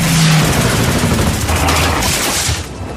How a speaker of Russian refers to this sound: Ямамото летит на бомбардировщике, его сопровождают еще семь машин, и тут появляются 20 американских истребителей, которые начинают поливать самолеты пулеметным огнем.